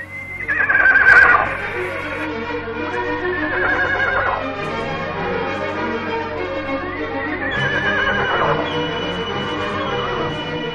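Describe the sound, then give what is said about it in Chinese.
A horse whinnies twice, high and shrill, each call sliding downward in pitch, the first loudest. A steady clatter of hooves runs underneath, and no one speaks. “她牵着马儿到小河边饮水，轻声的对它们说话。”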